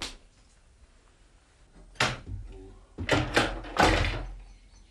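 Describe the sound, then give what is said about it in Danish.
A prison cell window at Vestre Fængsel in Copenhagen is opened on the night of 2 May 1991 to let in fresh air: a sharp clunk of the latch, then a quick series of scraping, rattling thumps as the frame is pushed open, with no talking. “Men nu vil jeg lige lukke vinduet op og få lidt frisk luft ind i cellen.”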